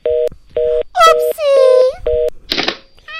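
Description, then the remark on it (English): A phone left off the hook beeps in steady, evenly spaced electronic tones, interrupted by a high, wavering voice and a short burst of noise before the beeping resumes. “You forgot to hang up the phone”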